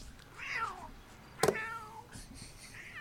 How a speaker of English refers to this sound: Aw, I think your cat wants to come in.